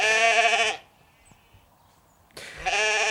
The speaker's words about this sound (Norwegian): En geiteflokk har tatt over gatene i Wales, som ligger i Storbritannia. De bor til vanlig oppe i fjellet, men nå har de trukket ned til byen og begynt å spise folks hekker og blomster.